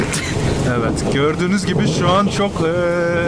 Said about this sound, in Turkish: yağmurlu bir alandan size sesleniyorum. e, burada hava çok kötü durumda olduğu gibi aynı zamanda tren geçiyor.